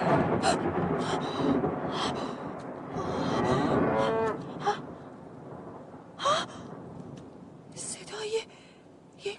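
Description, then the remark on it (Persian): A cow moos in a long, low, drawn-out call lasting several seconds, followed by a few short breathy gasps and fainter bursts of sound. “گاو بود آری آری اطمینان دارم صدای گاوی بود صدا از اون سو آمد بایستی به جانب صدا روم”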